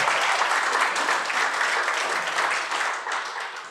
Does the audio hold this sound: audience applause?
yes